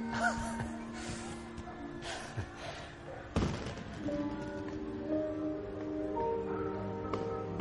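Fireworks explode in the sky: a sharp, deep boom bursts out partway through, set against a steady wash of crackling and rumbling background noise with faint tonal hums.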